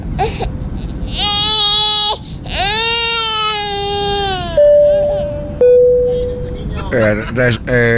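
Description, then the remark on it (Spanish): A baby wails loudly in long, rising cries with brief gasps between them, continuous over a steady background rumble, on a passenger flight. “con todo respeto a las personas que están teniendo los niños que están llorando, con todo respeto, por favor, de dormirlos o a ver cómo le hacen, porque hay gente que está descansando ahorita en el vuelo.”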